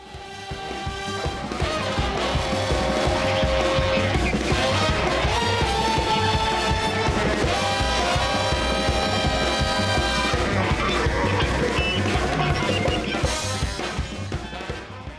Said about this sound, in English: it's actually the music that's played during a chase scene in one of the episodes